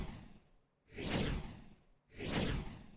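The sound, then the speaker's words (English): Two airy whooshes of a stinger sound effect sweep past in quick succession, each swelling up and fading over about a second, with a short gap between them and no talking. “Did I just not hear this the stinger?”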